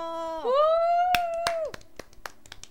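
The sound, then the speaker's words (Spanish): A handful of sharp, irregular hand claps ring out over a loud, sustained whoop that slides up in pitch and then holds before fading. It sounds like a small burst of applause. “aplausos, aplausos y risas.”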